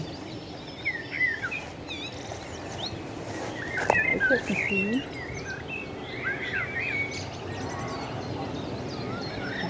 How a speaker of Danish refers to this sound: Den er, bare, den er bare sådan lidt dybere, og lidt mere fyldig, og lidt mere... Og, og, og så er det, kommer det helt ud af sådan en lille, lille bitte fugl. Det kom derovre fra.